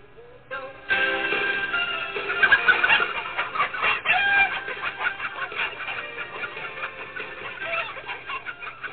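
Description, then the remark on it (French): A busy flock of chickens on the Kofi et Loupété poultry farm clucks and squawks nonstop, with a rooster crowing among them, loud, starting after a brief quiet moment and continuing to the end. “Nous avons les meilleurs poulets.”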